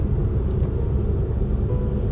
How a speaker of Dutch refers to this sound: Een vrachtwagen voor laten gaan. Het is echt spits, hè?